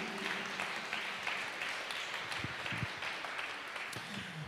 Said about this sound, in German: Lass uns auch dem Herrn mal einen Applaus geben dafür, dass er in uns lebt.